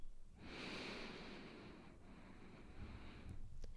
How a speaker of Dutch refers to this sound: Sluit je ogen, keer je aandacht naar binnen en richt je op je ademhaling. En adem een paar keer diep in door je neus.